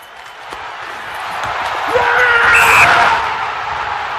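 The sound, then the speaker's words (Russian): Hockey player Ovechkin lets out a loud, drawn-out triumphant victory shout after a goal, over a constant roar of arena crowd noise. The yell swells in the middle and then fades back into the crowd. “Ну, это крик победы, тоже в исполнении Овечкина.”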